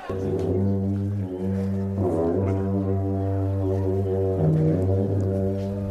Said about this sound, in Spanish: Estos son aquellos trompetones, eh, no sé cómo se llaman, ¿no? Me sigue muriendo la, la piel de gallina, sí son las largas trompetas tibetanas, los duchen, esas famosas duchen mm. esas famosas largas trompetas tibetanas.